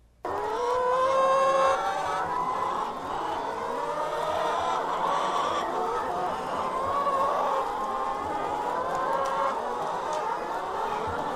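A dense chorus of many hens clucking and cackling together in a poultry house holding 5,500 egg-laying hens in the far west of Santa Catarina, steady and loud throughout, with overlapping calls creating a continuous busy din.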